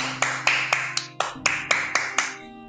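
Neighbours clapping in a steady, brisk rhythm, about nine sharp claps with a brief hitch midway. A low steady hum runs faintly underneath, and no one speaks.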